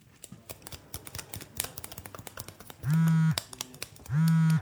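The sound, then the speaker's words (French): Quiet, rapid applause tapped with fingers by a group of friends congratulating themselves at 10:15 pm after a big night, a dense patter of soft clicks, interrupted near the end by two loud, low buzzing tones that each last about half a second. “On peut s'applaudir avec les doigts.”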